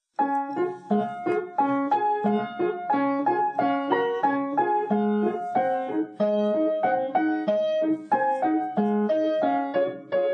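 An instrumental introduction to the nursery rhyme "Rain, Rain, Go Away", played for children to sing: a bright, steady melody of plucked or struck notes over repeating lower chords, moving at an even, bouncy pace with no voices.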